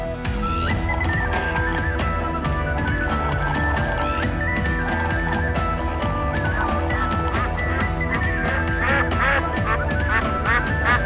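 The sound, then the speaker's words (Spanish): Loud, repeated duck quacks come in a rapid, overlapping series from the back of the audience at a live concert, layered over a dense, steady wash of other sound that fills the whole stretch. “Eso, pato.”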